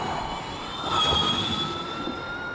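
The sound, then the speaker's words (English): A steady, high-pitched electric motor whine from Formula E race cars holds over a broad rushing road noise, swelling briefly louder near the middle, with no voices. “And and when you can hear obviously there's there's the whine of the motors themselves. Not the roar like a traditional motor, but that whine.”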